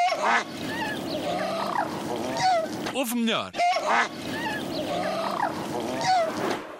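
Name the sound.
goose honking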